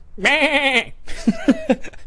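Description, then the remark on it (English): A person imitates a goat, letting out one long, quavering bleat, then a string of shorter, choppy bleating bursts that edge toward laughter. “I remember I'd be making goat noise in math, teacher be on the on the board talking about a problem, and as soon as they'd turn her back”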